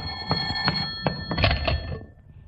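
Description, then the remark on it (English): An old-fashioned telephone bell rings in quick metallic bursts, moderately loud, with a steady high tone running through it before it fades out. “Will you get that phone, please, Mrs. Davis?”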